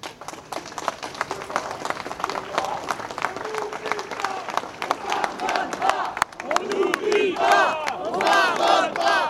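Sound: rally crowd chanting slogans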